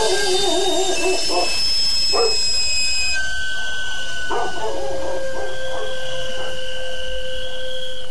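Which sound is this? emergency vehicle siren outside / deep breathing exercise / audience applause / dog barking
dog barking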